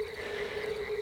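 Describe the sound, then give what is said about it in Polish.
A steady chorus of frogs croaking together from a pond by the road, a dense continuous drone, fairly quiet, with no voices. “No i tym razem pojechaliśmy tak mieliśmy tylko zerknąć na, na, taki główny staw przy samej drodze, co tam słychać, ale słyszymy, że gdzieś żaby się tam.”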